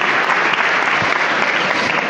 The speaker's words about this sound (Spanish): Pues está, la orden del hermano mayor, se abren las puertas de par en par de la parroquia de la Magdalena y el aplauso, tanto en el interior del templo como en el exterior.